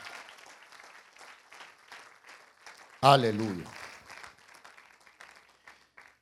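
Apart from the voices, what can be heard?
audience applauding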